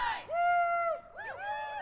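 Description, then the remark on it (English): A crowd of adults and children chants together outdoors at a Saturday morning rally in support of Palestinians in Jackson, in front of an archway of elk antlers: one long, drawn-out shouted note, then several overlapping rising and falling calls, moderately loud, with no distinct speech. “A dog with a poster attached to it that read Pups for Palestine moved through the chanting crowd.”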